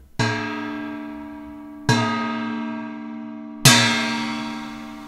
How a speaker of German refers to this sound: Die Glocke der Uhr begann zu schlagen und ließ den Raum erbeben.